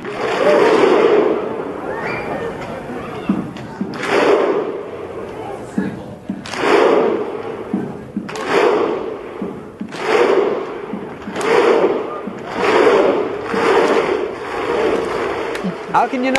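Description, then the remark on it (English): A large crowd of football fans of a national team, from a country of about 335,000 people, performs a Viking war clap to celebrate qualifying: big unison claps with a shouted grunt land at a slow, steady beat, about every second and a half, over a constant stadium murmur. “They're the first country with under a million people to qualify, and when they did, they showed us once again that unique celebration they do with their fans. That kind of Viking war clap.”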